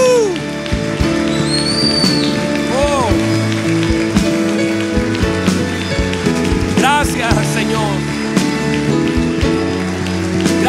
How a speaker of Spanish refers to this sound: Vamos una vez más ese aplauso a nuestro buen Padre, al Hijo y al Espíritu Santo.